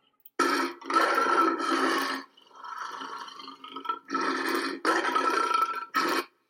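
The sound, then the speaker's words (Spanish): A lion roars in a series of loud, deep, rasping bursts, two long ones, a softer rumbling growl, then three more heavy roars with short gaps between them. “el rugido del león es el sonido más fuerte que puede hacer un felino”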